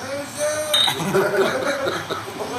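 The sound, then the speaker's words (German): Glasses clink together in a toast, a bright ringing chime that lingers briefly, while several voices murmur and chuckle. “Sehr zum Wohl. Prost.”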